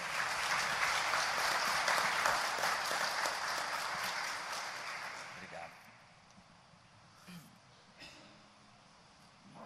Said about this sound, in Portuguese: Vamos aplaudir Jesus.